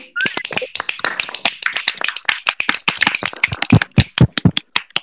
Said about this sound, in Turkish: Kocaman, kocaman bir alkış alalım.